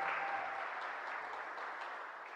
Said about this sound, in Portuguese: Obrigado, meninas e meninos. Um aplauso para ele, por favor.